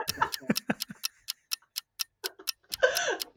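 A clock ticks steadily with sharp, evenly spaced clicks during a quick-fire question round, while a voice briefly murmurs and laughs at the start and again near the end.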